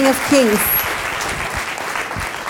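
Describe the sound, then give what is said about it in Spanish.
An audience breaks into loud, sustained applause for the King of Kings, a dense steady clatter of many hands, with a brief voice calling out at the very start. “Le podemos dar un fuerte aplauso al Rey de Reyes.”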